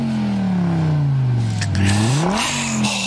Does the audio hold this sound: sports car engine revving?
yes